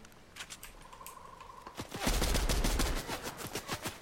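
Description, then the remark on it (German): Rapid bursts of video game gunfire crack repeatedly, starting as scattered shots and building into dense, loud automatic fire with a low rumble midway, no one speaking. “Ja, ich treffe die, Schü die, Schüsse, die Schüsse treffe ich immer noch gut.”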